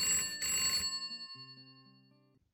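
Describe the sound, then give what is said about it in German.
A Hoblophon telephone bell rings in a short, loud metallic burst, then its bright ringing tone fades away, leaving low lingering hums. No one speaks. “Liebling, das Hoblophon klingelt.”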